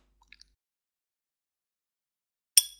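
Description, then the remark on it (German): Wet chewing of watermelon with a full mouth: a few faint mouth clicks, a long quiet pause, then one loud juicy, crunchy bite that quickly fades. No talking. “Weil du einen Mund voll hast weil ja. ich Wassermelone esse.”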